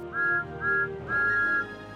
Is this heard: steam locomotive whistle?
yes